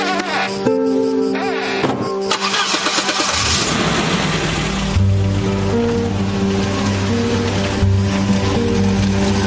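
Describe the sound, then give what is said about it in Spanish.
A car engine cranks and starts with a loud burst, then settles into a steady low idle rumble as the car reverses and drives out of a village, with music playing over it throughout. “El coche recula y sale del pueblo.”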